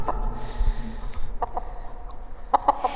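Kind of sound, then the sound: animal, chickens clucking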